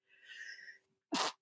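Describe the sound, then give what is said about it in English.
A single loud sneeze: a breathy drawn-in inhale, a brief pause, then a sharp explosive burst that cuts off quickly. “Bless you.”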